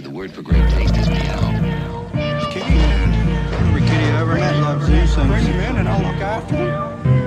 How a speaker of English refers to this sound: Oui, des sons de chat.